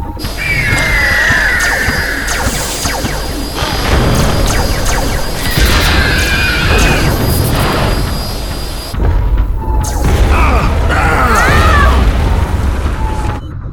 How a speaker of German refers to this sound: Schiff, Waffensystem aktivieren. Knallt das Ding ab.